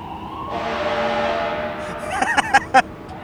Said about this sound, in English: Every time a fucking fire truck goes by, it's like I feel like I actually need to like No, me too. plug my ears a little bit. It's actually pretty intense sometimes.